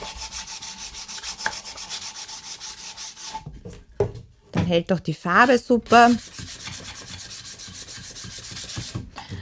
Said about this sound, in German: Also am Anfang natürlich die alten Kisten haben oft etwas äh, noch Scharfes oder Unregelmäßiges. Man kann das dann schön glatt schleifen.